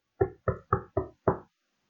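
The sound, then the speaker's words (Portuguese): Five firm knocks on a house door as a man, a painter, knocks again, four in quick even succession and a fifth after a short pause, fairly loud with no voices. “E o senhor volta a bater à porta.”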